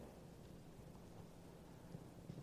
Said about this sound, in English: It sounds like thunder. Looks like it might rain today.